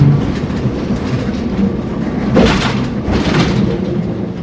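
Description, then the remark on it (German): A tram in Naumburg rolls along its rails with a steady rumble, swelling into two brief louder rattling surges midway through, with no voices heard. “die äh, Einwohner, die hier äh, wohnen, haben sich natürlich gefreut, dass sie jetzt auch mit der Straßenbahn von hier aus direkt zum Bahnhof fahren können.”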